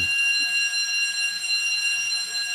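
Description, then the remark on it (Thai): A building fire alarm rings continuously, a steady loud electronic tone with stacked harmonics that holds without a break throughout, with faint low rumbling noise underneath. “อ่าไม่เป็นไรฮะอย่าตกใจฮะเป็นเรื่องปกติ อาจจะมีเสียงอาจจะมีเสียงน้อยมานิดนึงนะครับเป็นเรื่องปกติ ฮะ เพราะว่า ช่วงนี้อาลามดังบ่อยนะเพราะว่ามีพี่ๆน้องๆอาจจะเป็นสิ่งลมควันกันนิดนึงนะครับ”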